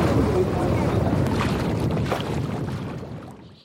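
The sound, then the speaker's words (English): A sailboat built in 1908 moving through lake water at Crom, a steady rush of water and wind buffeting the microphone, continuous for several seconds before easing off at the end. “This boat was built in 1908 Oh, they're just beautiful, to sail. They just glide through the water.”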